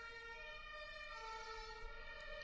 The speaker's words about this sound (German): dass der Krankenwagen vorbeifährt.